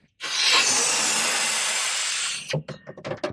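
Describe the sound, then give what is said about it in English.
A long, steady rush of breath blown hard into an open-ended rubber balloon, loud for about two seconds, followed by a few short, uneven breathy bursts. “However, I'm now going to pass you a balloon which has an open end”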